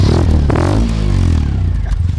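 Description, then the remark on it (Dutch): The engine of a modified car built on a 2CV chassis revs loudly, its deep throaty rumble rising and falling in pitch over a couple of seconds with a rattling, raspy note from large chrome exhaust pipes at the side of the car. “Dat klinkt allerminst als een deusjevootje. Want eh, er zitten grote pijpen, chrome uitlaatpijpen aan de zijkant van de auto.”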